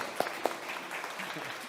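A short burst of audience applause welcoming a guest's family, a soft, steady patter of many hands with two sharper claps standing out near the start, and faint voices mixed underneath.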